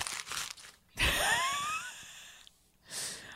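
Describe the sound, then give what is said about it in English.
Paper crinkles and crumples in a few quick, rustling bursts as a sheet of show-prep notes is crumpled and thrown away, with a brief pause between handlings and no one speaking. “I actually need that piece of paper that I just threw.”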